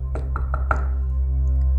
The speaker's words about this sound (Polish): Rozległo się kolejne pukanie, tym razem gdzieś bardziej na lewo.